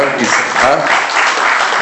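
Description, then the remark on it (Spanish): A crowd applauds a French teacher steadily, a dense wash of many hands clapping at a fairly loud, even level throughout, with a faint murmur of voices mixed underneath. “está con nosotros, un aplauso para ella.”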